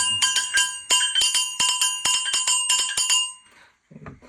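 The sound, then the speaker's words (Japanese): A kane metal hand gong rings in a quick, steady rhythm of about a dozen bright, sharp strikes with shimmering overtones, then stops, followed by a brief soft rustle. “金っていつもこの、自分がリズムキープだから、金、金に合わせて他の太鼓だったり、ね、笛だったり、まあ、上付け、ね、中、中付け、上付け、王道みたいな太鼓とかね、合わせてくれるから”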